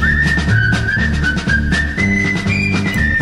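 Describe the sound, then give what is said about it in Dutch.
A cheerful whistled melody, the theme of the 1960s French film series Le Gendarme de Saint-Tropez, often heard on French television during the holidays, rides over a bouncy, rhythmic instrumental backing, the whistle holding a bright, steady pitch with small slides between notes. No one speaks. “Ja, Le Gendarme de Saint-Tropez.”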